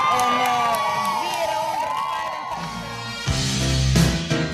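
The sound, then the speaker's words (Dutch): A crowd of protesting women, sex workers, shouts and cheers loudly at the city hall as Mayor Wolfsen comes outside, their high voices overlapping in sustained, wavering cries, with a burst of louder whooping and thumping near the end. “En als Wolfsen naar buiten komt, laten de prostituees horen dat het menens is.”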